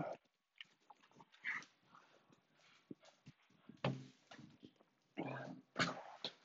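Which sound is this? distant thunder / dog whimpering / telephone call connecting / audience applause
dog whimpering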